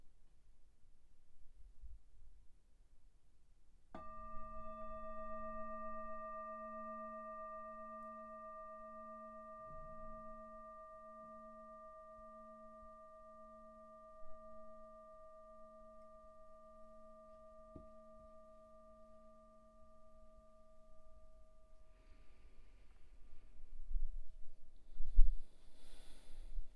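A single meditation bell is struck once at the start of a meditation practice and rings out in a long, pure, shimmering tone with a gentle wavering pulse, slowly fading over many seconds amid quiet.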